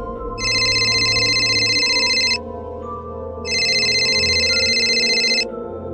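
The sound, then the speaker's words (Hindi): A phone ringtone rings twice in loud, bright bursts of about two seconds each, separated by a short pause, over a low background hum: Sahil's phone ringing with an incoming call from Swastik's number. “और जैसे ही दोनों कुछ कहने को जा रहे थे कि साहिल का फोन बजा नंबर को देखकर तीनों हैरान हो गए क्योंकि कॉल स्वास्तिक के नंबर से आ रहा था”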